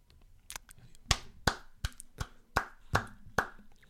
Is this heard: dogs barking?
no